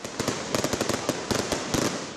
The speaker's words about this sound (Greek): Γέμισαν κόσμο με καπνογόνα και πυροτεχνήματα σε κεντρικές πλατείες.